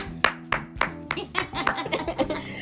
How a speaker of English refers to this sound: On that note, I want to give Tools of Lagos a round of applause.